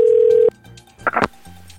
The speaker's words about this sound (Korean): 못, 못 믿겠으면 지금 바로 산타한테 전화 연결을 할수 있지요.